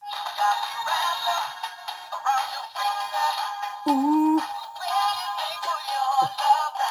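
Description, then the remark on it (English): A small dancing wiener dog toy plays tinny, bass-less funk music, an old '70s funk song, continuously for several seconds, with a busy, bright melody. A voice briefly says one word partway through. “got this really cool dancing dog that is in his room that we were watching dance and listen.”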